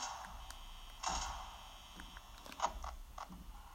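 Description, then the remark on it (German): A mechanical door in a video game slides shut with a creaking, grinding clatter, followed by a few short metallic clicks and ratchet-like taps, moderately loud with no voices. “erstmal da eine Tür zu machen.”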